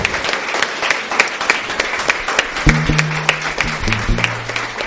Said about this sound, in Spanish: un fuerte aplauso al Señor en esta tarde.